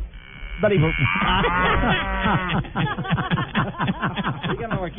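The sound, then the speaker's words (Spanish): A dairy cow named Clarence moos loudly, a low drawn-out bellow with wavering pitch, followed by a stretch of busy, overlapping voices talking. “Y es una vaca lechera, sí. Es, una vaca lechera, no es una vaca cualquiera.”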